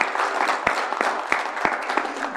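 An audience applauds steadily, a dense wash of many hands clapping with a few sharper, louder claps standing out. The clapping is moderately loud and continues throughout with no voices.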